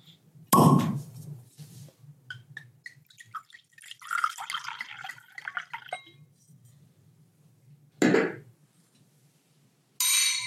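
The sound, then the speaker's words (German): Glasses clink together in a toast, a few light, bright ringing taps in the middle, set between short bursts of louder rustling noise and a faint low hum, with no talking. “Und ja, vielleicht stoßen wir erstmal einfach an.”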